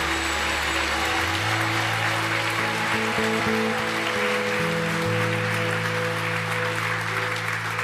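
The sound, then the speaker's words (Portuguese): A church audience claps loudly and steadily for the Lord Jesus for the full stretch, a dense, unbroken wash of applause, with sustained low musical notes humming and shifting pitch underneath. “Aplauda o Senhor Jesus bem forte, é para Ele.”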